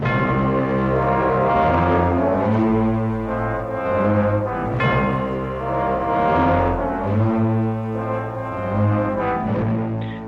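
An orchestral theme plays throughout, with sustained, brassy chords shifting slowly over a deep, steady low end. The music stays loud and full, with no voices.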